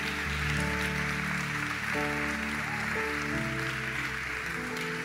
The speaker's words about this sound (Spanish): Alguien que lo crea y le pueda dar un fuerte aplauso al rey.